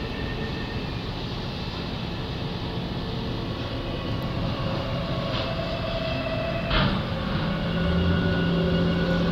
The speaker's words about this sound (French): Et c'était comme si ça avait donné le signal à, la machine fatiguée et mélancolique de reprendre le travail. Donc euh, ça y est, elle a de nouveau sa pelle pleine de gravats.